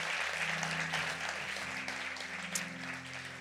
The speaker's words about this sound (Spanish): Dale un aplauso al Señor. Dale un aplauso bien fuerte al Señor creyendo esto.